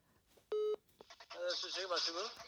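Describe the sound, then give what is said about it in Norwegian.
A single loud, short telephone keypad tone beeps once as someone dials a phone call, followed by people talking and some background noise. “Uh, greit, da ringer jeg dem, da.”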